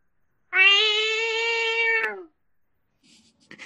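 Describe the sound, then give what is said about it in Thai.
A single long, drawn-out meow from a pet cat, loud, holding steady for nearly two seconds before trailing off, followed by faint rustling noises. “ขอเสียงแมวหน่อย”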